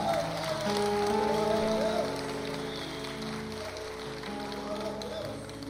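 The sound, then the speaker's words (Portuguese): A large crowd claps steadily in a dense, sustained wash of applause, with a man's voice and some sustained musical tones carrying over it before the clapping eases slightly. “Ah, aplaude de verdade aí se você acredita nisso, irmão.”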